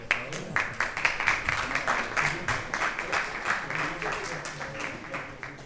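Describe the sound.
An audience applauds steadily for several seconds, a dense patter of many hands clapping at a fairly even loudness, with faint voices mixed into the clapping.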